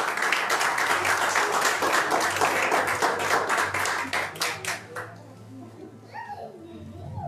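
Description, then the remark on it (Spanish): An audience at a church service claps together in a dense, loud burst of applause for about five seconds as an offering of applause to Jesus, then the clapping thins out and fades as a voice begins speaking. “Denle una ofrenda de palmas a Jesús.”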